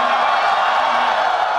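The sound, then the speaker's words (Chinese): A loud, steady wash of cheering from a student audience that has just watched the film Lost in Hong Kong (港囧), many voices shouting and whooping together without a break. It is continuous and dense throughout the short stretch, with no single voice standing out. “那这样，我我先问一下同学们，因为咱们刚刚看完电影，是最直观的观众，在观看港囧的过程当中，真正认为自己达到爆笑状态的，欢呼可以。”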